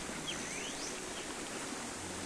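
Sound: flowing water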